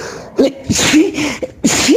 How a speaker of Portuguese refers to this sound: que espirro aqui, hein?